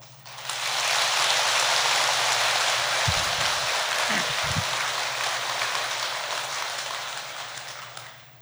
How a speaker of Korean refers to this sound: 그래서 두 분 스님께 박수 한번.